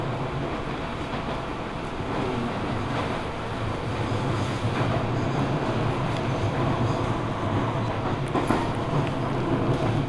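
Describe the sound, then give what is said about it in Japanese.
Steady rumble from inside a moving local train on the Seibu Chichibu Line between Hanno and Nishi-Agano, bound for Nagatoro and Mitsumineguchi, wheels rolling over the rails with a continuous low roar and faint rattles and clicks, loud, with no voices. “耳で楽しむ鉄道旅 西武秩父線 飯能→西吾野”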